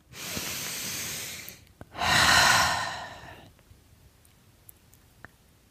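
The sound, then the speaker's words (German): Two long, deep breaths, a slow airy inhale followed by a louder, forceful exhale, then quiet with a few faint clicks. “also erstmal, meine Worte überschlagen sich, wir atmen.”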